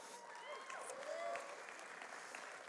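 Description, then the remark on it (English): An audience applauds steadily for a few seconds, welcoming two spiritual leaders invited up to the front, a dense wash of clapping hands at even loudness, with faint voices and a few whoops mixed into the crowd noise. “if you guys wouldn't mind giving these friends a round of applause.”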